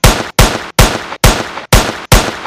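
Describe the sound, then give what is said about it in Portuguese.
Machine gun fire rings out in six loud, evenly spaced blasts, each a sharp crack with a short echoing tail, steady, with no voices. “Você quer mais metralhadora? Tem metralhador também.”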